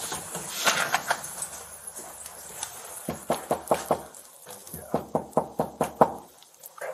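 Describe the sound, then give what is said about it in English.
Firm, rapid knocking by Marshfield police on the door of apartment one comes in three separate bursts of several raps each, loud, with short pauses between the volleys and no talking. “So they're knocking on the door of apartment one.”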